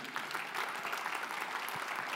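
An audience claps steadily, a dense, even wash of many hands applauding at a moderate level with no voices standing out, sustained throughout the short stretch.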